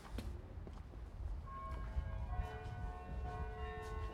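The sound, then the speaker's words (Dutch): The bells of the Martini Tower ring out with sustained, overlapping tones that start partway through and linger, heard at the Martini Kerkhof over a low outdoor rumble with faint footsteps. “En dat is de Martini Toren die we horen.”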